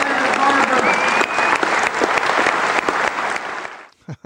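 Steady, loud applause from an audience fills about four seconds, dense clapping with a few faint whistle-like tones, then cuts off abruptly into a couple of brief low thumps.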